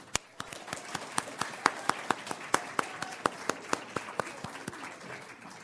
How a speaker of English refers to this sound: I also think that we should give a round of applause to